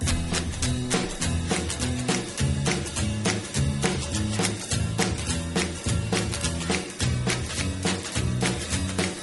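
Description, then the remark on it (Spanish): A frenetic 1960s doo-wop song plays loud, with a driving, steady beat, bouncing bass and harmonized group vocals carried over a full band. “es una de esas canciones de música doo-wop frenéticas, llenas de, de coros súper divertidos”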